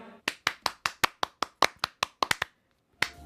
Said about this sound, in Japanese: 大きな拍手お送りください